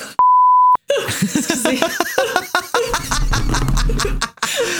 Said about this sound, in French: Non, c'est correct, je mets des bips. J'ai un bip toujours prêt que je vais mettre. Je trouve ça drôle avec des bips.